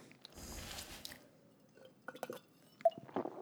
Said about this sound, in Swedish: Rättelse, jag tog en klunk vatten.